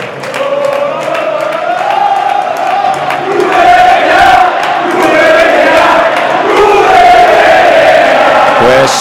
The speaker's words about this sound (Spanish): Y Castalia cantando vete ya, ¿eh? Sí, sí, la verdad que, la gente está muy caliente con, con el entrenador catalán.